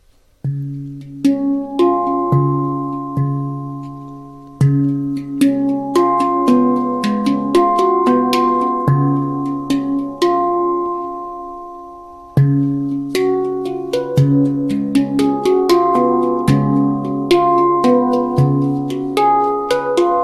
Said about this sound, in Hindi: ये hand pan क्या होता है क्यों ना हम शुरुआत करें इसकी एक धुन सुनकर